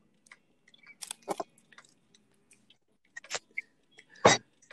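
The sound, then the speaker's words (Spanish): Wet chewing of strawberries, with irregular squishy bites and smacking sounds clustered in bursts, the loudest crunch near the end, no talking. “Ah, ya me he terminado las fresas.”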